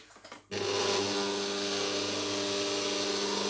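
A kitchen stand mixer switches on after a brief quiet rustle as three cups of sugar are added, then runs at a loud, steady whir with a constant low motor hum and broad grinding noise, no voices over it.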